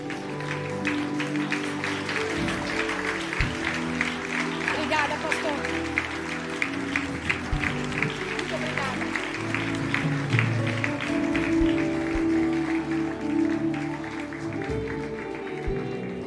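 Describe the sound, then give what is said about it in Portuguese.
A church audience applauds Jesus steadily for several seconds, a dense wash of many hands clapping at a moderate level, with voices and some music-like tones mixed underneath. “Você consegue aplaudir a Jesus?”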